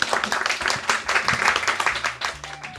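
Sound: audience applause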